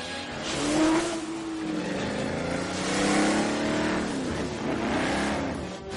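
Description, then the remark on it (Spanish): A Jaguar car tears through a hall as arches fall, driving under jets of water, its engine roaring loudly and revving in rising and falling sweeps over a constant rushing wash of noise, with no voices. “El Jaguar atraviesa el hall mientras los arcos caen. James conduce bajo los chorros de agua.”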